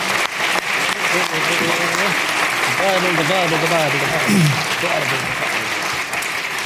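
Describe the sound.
Sustained audience applause fills the room at a steady, loud level, with voices faintly audible underneath the clapping as a crowd welcomes someone.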